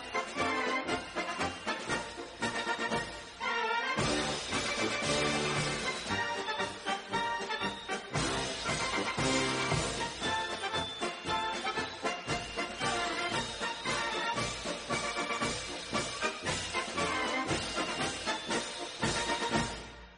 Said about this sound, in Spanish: Pepita Durán en esa mitad del siglo XIX y que iba deslumbrando por todos los teatros de Europa, que tenía toda la fama de la que hemos hablado y que incluso llegó a tener su propia marcha militar, como estabas diciendo tú antes, que suena así.